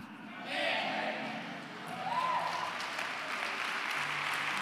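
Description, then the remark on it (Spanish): An audience applauds, a dense, steady clatter of many hands that swells slightly partway through and keeps going, with scattered voices calling out beneath it. “Apláudale más fuerte, por favor, hágalo a él.”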